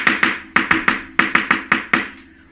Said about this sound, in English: Or if children are excited about it and they knock